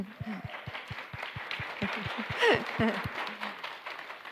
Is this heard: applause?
yes